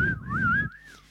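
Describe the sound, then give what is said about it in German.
A single gliding human whistle, wavering up and down in pitch like whistled speech, with a low rumbling background that drops away near the end. “Es geht um Pfiff, Pfiffsprache. Pfiff.”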